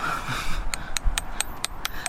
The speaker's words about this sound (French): Donc on utilise de la très, haute technologie, hein. un clou et un marteau.